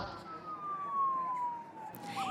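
police car sirens

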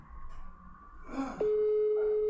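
telephone ringback tone

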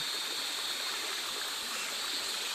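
flowing river stream water

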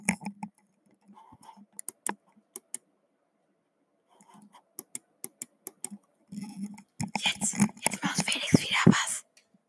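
computer mouse clicking

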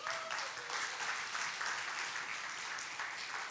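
audience applause

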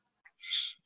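pet bird screeching

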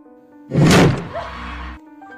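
door slamming shut

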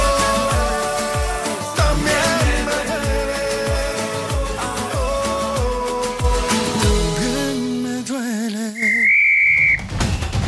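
referee's final whistle

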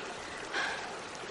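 river stream flowing

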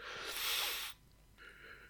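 yawning

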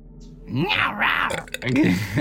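sneeze

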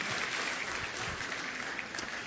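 audience applause

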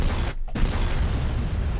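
cannon fire sound effect

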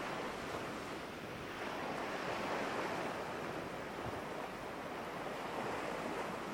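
water waves

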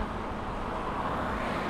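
car driving

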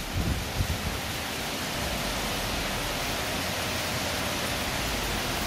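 heavy rain falling outside

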